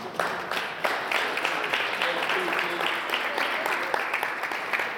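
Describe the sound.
An audience claps steadily for about five seconds, a dense, even wash of many hands with a few voices calling out beneath it.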